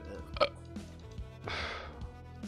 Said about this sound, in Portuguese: Eu adoro que teu arroto tá é tímido. Eu acho isso tão, é tão bonitinho.